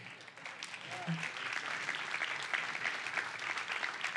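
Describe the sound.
A crowd applauds steadily, a dense, even patter of many hands clapping that holds at a consistent loudness for the whole stretch, with a brief faint voice sound early on.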